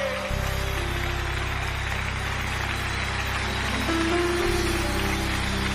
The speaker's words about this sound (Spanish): aplauso al rey.